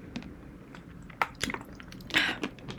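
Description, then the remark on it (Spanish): Wet mouth sounds of someone with a cold sipping water from a small bottle and swallowing, with several soft gulps and clicky smacks spread across a few seconds, no talking. “Ah, yo haciendo todos los capítulos de SMR yo tomando líquidos. Era el té con leche, ahora es la, el agüita.”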